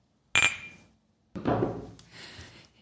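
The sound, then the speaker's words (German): A single bright clink of glasses touching in a toast at a café in St. Pauli, with a short ringing tail, followed a second later by a duller clatter as they are set down. No one speaks. “Und erstmal Prost. Ja, Prost.”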